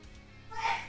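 A woman gives a single short sneeze, a sharp breathy burst at the end after a quiet intake, with no talking.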